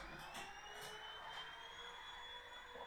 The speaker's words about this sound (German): Warte ganz kurz, ich muss kurz meinem Mann sagen, dass er jetzt gerade nicht äh, äh, Staubsaugen soll. Staubsaugen kann.